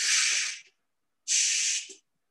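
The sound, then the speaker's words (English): A voice imitates breathing through a firefighter's respirator mask: two harsh, hissing breaths, each about half a second long, separated by a brief pause. “when you're breathing with the mask on, it's not quiet. It's like Darth Vader.”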